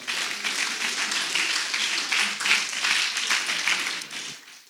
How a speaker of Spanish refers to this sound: Dele un aplauso al Señor, hermano.